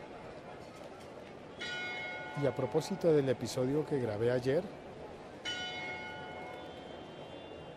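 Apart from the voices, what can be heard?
church bells ringing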